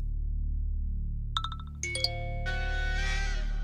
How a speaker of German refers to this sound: Dann pingen unsere Geräte. Alle gleichzeitig.